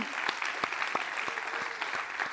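An audience applauds steadily, a dense wash of many hands clapping with sharper individual claps popping out, sustained at an even level throughout.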